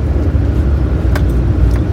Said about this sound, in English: And it is a chilly morning. I'm going to run the defroster in my truck as I head down the driveway, so bear with that noise.